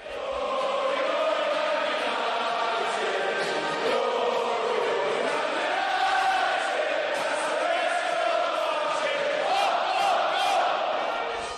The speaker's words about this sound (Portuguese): É isso, ó. Glória, glória, glória. Manchester United, né? Musiquinha, um hino bonito, né? A torcida do Manchester acostumada a cantar isso em... há 20 anos atrás, por exemplo.